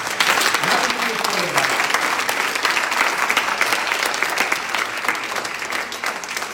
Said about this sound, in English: Give the Lord a hand clap if you're not afraid. Give the Lord a hand.